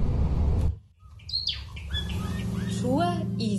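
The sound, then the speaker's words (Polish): A small bird sings in the distance, a series of short, thin chirping notes repeated over a steady low rumble of background noise, fairly faint. “W oddali śpiewał do mnie ptak na przywitanie, chyba to był pierwiosnek.”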